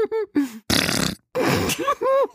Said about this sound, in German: ist das etwa eine Pupsmaschine? Ja, das ist ein Furzgenerator. Den habe ich extra für meine Expedition heute besorgt.